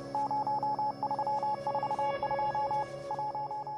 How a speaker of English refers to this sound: Turns out the composer added Morse code to his song to spell out the message Liberate Hong Kong, the revolution of our times.